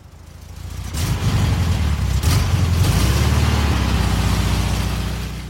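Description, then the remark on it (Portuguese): A woman in the driver's seat starts a Volkswagen Beetle engine; it cranks and catches, then settles into a loud, steady low rumble with a throaty rhythmic putter, heard alone without any voices. “Mamãe nos colocou no banco de trás, regulou e prendeu os cintos de segurança aos nossos corpos pequenos e depois entrou no carro, colocou o cinto, os óculos de sol e ligou o motor.”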